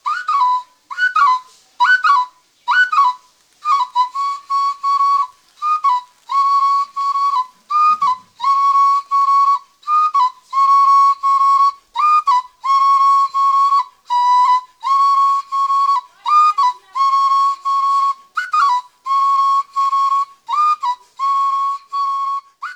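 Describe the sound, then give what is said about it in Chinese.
A fululu, an African whistle made from a gourd to imitate bird calls, plays alone in a long run of short, bright, birdlike chirps and held tones, with quick pitch flicks and a steady, lively rhythm of repeated bursts, fairly loud throughout. “没错啊，飞鲁鲁和口笛一样，那也是为了模仿鸟叫而制造的。”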